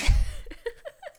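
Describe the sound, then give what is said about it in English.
One abrupt, forceful sneeze bursts out at the start, then trails off into a few soft, breathy vocal sounds like quiet laughter. “heavens, Bless you.”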